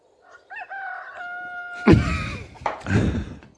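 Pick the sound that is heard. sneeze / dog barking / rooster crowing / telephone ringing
rooster crowing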